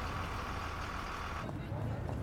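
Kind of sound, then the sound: vehicle, city bus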